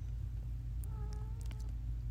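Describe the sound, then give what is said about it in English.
A cat named Turkey gives a single drawn-out meow, fairly quiet, over a steady low background hum, with no one talking. “Yes, meow to you, Turkey.”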